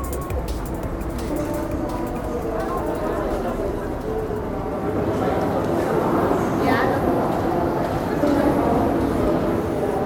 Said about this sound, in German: Hallo nochmal hier vom Hamburger Hauptbahnhof. Ich habe mir gerade meine Fahrkarte besorgt und werde mich jetzt in Richtung meines Zuges begeben, der mich gleich und hoffentlich ohne irgendwelche Verspätungen nach Wittenberg bringt.